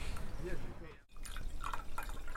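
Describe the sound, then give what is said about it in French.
Sparkling water from the fountain at the town hall of the 11th arrondissement in Paris is poured into a glass, with a bubbly trickle, a short pause, then more fizzing and dripping splashes, while faint voices murmur in the background. “Donc, de l'eau pétillante de la fontaine de la mairie du 11”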